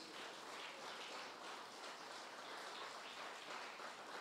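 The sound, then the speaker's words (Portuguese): Sustained applause from a large crowd given to the Lord Jesus during an evening sermon, a dense, steady wash of clapping that holds at an even level throughout without any voices standing out. “Dê mais um aplauso ao Senhor Jesus nessa noite.”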